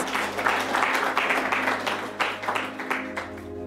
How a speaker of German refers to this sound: Ihr könnt Platz nehmen. Danke. Ein Applaus für diese Jungs.